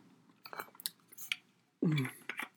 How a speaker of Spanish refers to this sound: Tenemos una pausa para tomar agua.